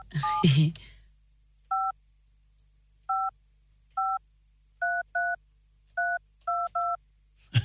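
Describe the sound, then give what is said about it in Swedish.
Radio hosts dial a listener: a phone number is punched in as a string of about nine short two-tone DTMF beeps, uneven in rhythm with some quick pairs. A brief burst of voice comes just before the beeps. “Nu ska vi ringa en som har hört av sig.”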